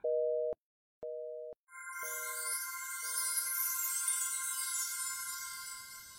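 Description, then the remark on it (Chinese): A telephone disconnect tone heard through a phone held to the ear after the other end hangs up: two steady, mid-pitched beeps with short gaps, then fainter clipped ones, giving way to a higher sustained tone over a bright, constant hiss. “电话断线之后，傅明翰仍失神的举着手里的电话在耳边，听着电话里传来的嘟嘟声。”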